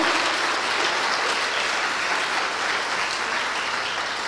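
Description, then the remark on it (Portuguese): An audience applauds for the Lord during a sermon: a steady, dense, continuous wash of many hands clapping at an even loudness throughout, with no voices standing out above it. “Posso ouvir uma salva de palmas para Ele, que é o nosso Senhor e Mestre.”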